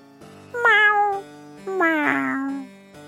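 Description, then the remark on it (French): A cat meows twice in quick succession, each call loud with a drawn-out, falling tone, the second slightly longer. No voices or other sounds accompany it. “Quant au chat, tout en retirant ses bottes, il lui raconta tout.”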